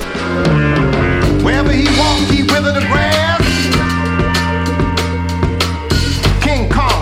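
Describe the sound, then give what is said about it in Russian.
A loud, continuous stretch of a stylized retro funk-soul film soundtrack in a 1970s blaxploitation style, not original music of that era, with a heavy bass groove, dense full-band instrumentation and sliding vocal-like melodic lines throughout. “Кстати, у этой картины блестящий стилизованный саундтрек”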